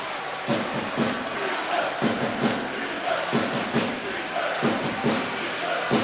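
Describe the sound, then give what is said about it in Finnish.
A large ice hockey arena crowd roars continuously, celebrating an Ilves victory, loud and dense, with repeated heavy thumps landing roughly once a second through the din. “ja sen jälkeen päästään Ilveksen voitonjuhlien kimppuun. Meteli on oikein mainio.”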